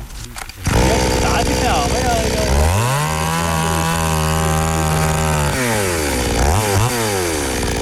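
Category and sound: tool, chainsaw running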